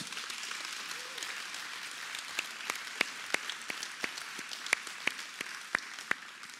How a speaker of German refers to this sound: Und ich will einfach nochmal so sagen, es ist so cool, dass wir so ehrenamtliche Menschen hier haben, die so coole Botschaften weitergeben, oder? Gib dir mal fetten Applaus.